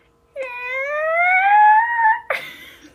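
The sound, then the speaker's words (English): A person's voice imitates a whale call, a long rising harmonic wail lasting almost two seconds, ending in a brief breathy break, fairly loud with no other sounds. “I think we should make a whale noise instead of putting our normal whale noise in there.”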